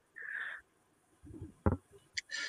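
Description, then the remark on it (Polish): A small dog gives a few high-pitched whines and yips, a drawn-out cry followed by short sharp bursts, fairly faint, with no one talking. “pozdrawiamy pieska.”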